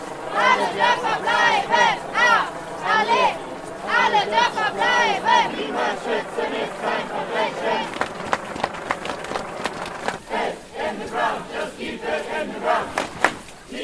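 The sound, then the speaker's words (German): A crowd of nearly 100 activists from the Kohle ersetzen group shouts, sings and chants together in loud, rhythmic bursts as they set off, accompanied by a helicopter, for a sit-in blockade of an access road to an open-cast mine. Voices rise and fall in unison, then break into scattered calls and footstep-like rustle toward the end. “Rufend singend und begleitet von einem Helikopter ziehen knapp 100 AktivistInnen los.”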